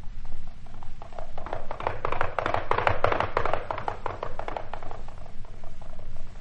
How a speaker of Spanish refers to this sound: Luego con su brioso caballo regresó al bosque como un rayo.